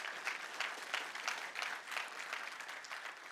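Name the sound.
audience applauding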